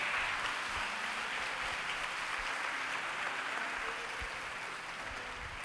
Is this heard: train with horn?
no